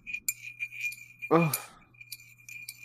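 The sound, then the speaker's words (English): A little stirring spoon that fits through the cup's handle clinks lightly against the cup several times in an uneven rhythm, the small metallic taps fairly faint, with a brief vocal gasp partway through. “So let's listen to the clinking.”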